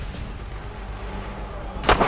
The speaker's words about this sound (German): War das ein Schuss?